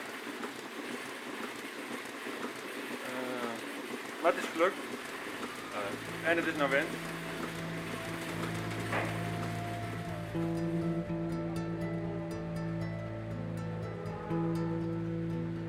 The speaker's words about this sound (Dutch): Je hoort op de achtergrond het eh, melken van de koeien waar hij op dat moment mee bezig is.